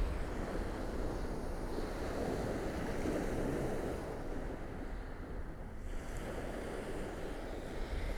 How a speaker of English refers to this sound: I thought, why not? It's sunny. and it's always going to be windy.